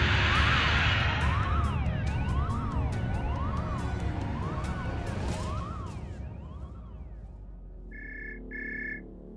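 Warning alarms blare with loud, wailing tones that rise and fall repeatedly over a dense, rumbling background, then two short electronic beeps sound near the end.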